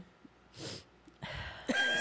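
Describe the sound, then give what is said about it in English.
A few short, throaty bursts of coughing and throat clearing from someone with allergies and a tickle in the throat, three separate rough exhalations spaced over two seconds, with no talking. “If you hear me hacking up a lung over here, it's because my allergies, and I got a tickle in my throat”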